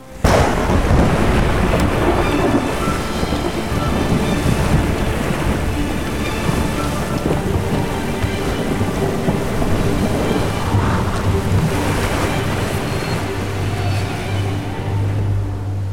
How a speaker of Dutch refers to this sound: Ik hoor het al. Zwaar weer op komst. Dat voorspelt niet veel goeds.